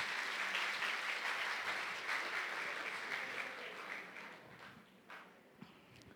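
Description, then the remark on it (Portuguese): A church audience claps steadily in a dense, crackling wash of applause that gradually thins and fades, with a few scattered claps lingering at the end. “Salva de palmas para eles.”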